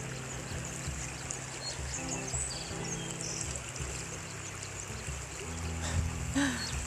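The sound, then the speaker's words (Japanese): A babbling river stream runs steadily throughout, a dense, even wash of gurgling water, with faint chirps of small birds bathing in the river flickering above it and a low rumble underneath, heard beside the river on a morning walk. “川の辺りで川のせせらぎと鳥の声を聞きながら話してます”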